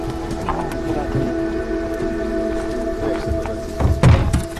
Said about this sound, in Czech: Ten zvuk můžete i natočit. Dobrý, Lopatami a podběráky z velkých kádí ryby překládají do plastových kontejnerů.